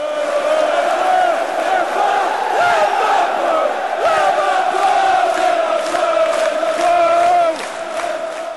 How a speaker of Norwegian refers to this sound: Spillerne gikk ut til en mur. En mur av lyd, spetakkel, klapping, synging, rop.